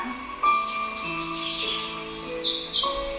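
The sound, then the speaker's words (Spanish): Small birds chirp and sing in quick, bright bursts over a soft, sustained tonal backdrop of gentle ambient music, at a moderate, steady level with no one talking. “Comienzas a escuchar los pajaritos volar, cantar.”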